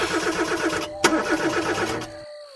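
A car engine cranks with a rapid, rhythmic churning and a sharp click partway through, then abruptly cuts out without catching, leaving a faint fading hum. Fairly loud, with no talking.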